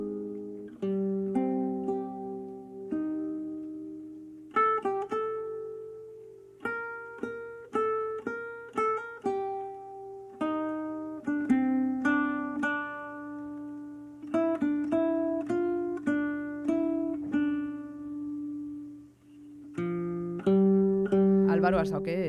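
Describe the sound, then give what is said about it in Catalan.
A Japanese-sounding instrumental piece with plucked, ringing notes forming a steady melody over a low sustained tone, each note decaying quickly, played alone with no voices. “te poso primer una musiqueta i després ja te conte, vale, lo que és”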